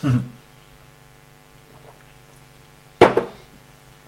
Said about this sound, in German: Ein Schluck Wasser.